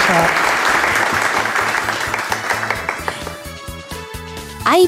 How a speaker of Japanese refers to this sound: どうぞ大きな拍手でお送りください